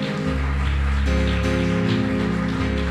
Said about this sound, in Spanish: Yo le daría un aplauso al Señor aquí fuerte.